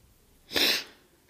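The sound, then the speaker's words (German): A single sharp, wet sniff through a runny nose, fairly loud, lasting under half a second with quiet before and after. “Mir läuft gerade so ein bisschen die Nase, deshalb äh, kann es sein, dass ich hier mal zwischendurch so ein bisschen schniefe.”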